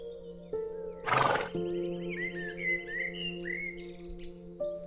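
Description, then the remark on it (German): A brown horse standing in a small paddock on a large farm whinnies in a long, wavering harmonic call with a sharp breathy snort early on, while small birds chirp steadily in the background; no one speaks. “Auf der einen Seite siehst du ein altes Backsteinhaus, auf der anderen eine kleine Koppel, auf der ein braunes Pferd steht.”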